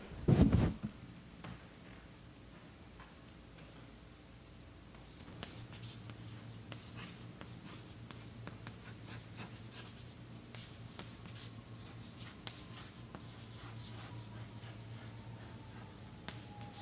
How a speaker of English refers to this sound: There was uh, this book, Happiness Hypothesis, Jonathan Haidt. Let me write down the name.